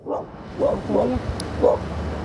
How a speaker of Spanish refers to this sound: Cuidado que se acerca el perro.